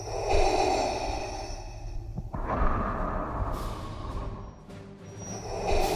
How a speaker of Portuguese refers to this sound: O episódio de aniversário foi sobre um dos maiores vilões da história do cinema aquele da respiração assustadora.